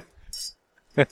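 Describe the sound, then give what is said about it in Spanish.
Glasses of rosé wine clink together in a toast in New York on a hot day, giving a single short, bright ring, followed a moment later by a brief burst of voice. “Pero salud. Salud.”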